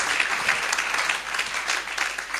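An audience claps steadily for a couple of seconds for two people who have just taken part at the front, a dense, even patter of many hands at a fairly loud level with no voices over it.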